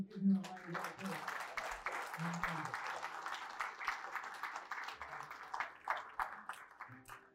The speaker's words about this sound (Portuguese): Se você crê e acredita, dê um forte aplauso ao Senhor.